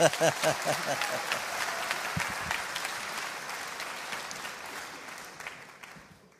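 An audience claps steadily, a dense wash of many hands that starts strong, holds for several seconds, then gradually thins and fades out. Some voices are briefly audible at the start.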